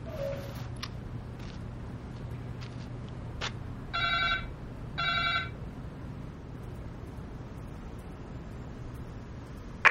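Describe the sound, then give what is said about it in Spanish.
A doorbell at a half-abandoned warehouse rings twice, two short electronic buzzing tones about a second apart, standing out over a steady low background hum with no one talking. “Sí, sí, timbre ahí, sí.”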